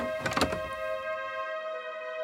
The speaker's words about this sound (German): Aber er dachte es während er die Tür mit unbeherrschtem Unwillen wieder leise zuzog.